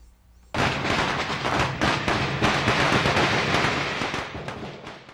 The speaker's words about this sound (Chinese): 这样就行了吧？果然，如我所料，用鞭炮声来吸引人这招真的有效。这两天我发现很多人都在门口观望。